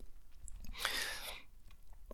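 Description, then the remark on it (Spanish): A single airy slurp of water lasting about half a second, followed by a soft swallow, taken during a pause to drink water, in an otherwise quiet moment with no talking. “Pausa para trago de agua y ya me lo acabar.”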